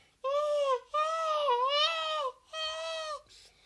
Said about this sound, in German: Man kann an den Strand liegen und Möwen hören.